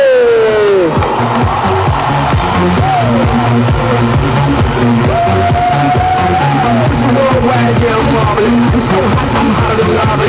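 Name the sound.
audience applause and cheering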